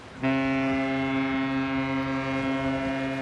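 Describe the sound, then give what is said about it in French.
A ship's horn sounds one long, steady, deep blast that starts abruptly and holds at full strength, loud, over a low rumbling harbour background, as a ship arrives in the port of Marseille. “Tout a vraiment commencé là, à la descente d'un bateau sur le port de Marseille.”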